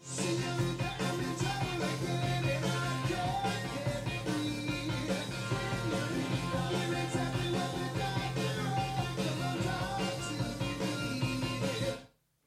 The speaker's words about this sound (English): So the main song has that echo delay driven riff. It kind of gives it a distinctive sound. Let me play a little bit of that now, and then we'll be good.